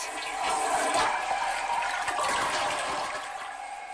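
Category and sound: household object, toilet flushing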